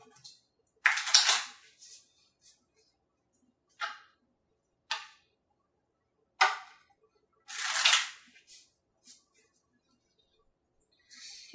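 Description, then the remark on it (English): Short bursts of papery riffling and flapping come in irregular spurts as cards are shuffled and books are opened and looked through, crisp with quiet gaps between them and no talking. “Shuffling cards, opening books.”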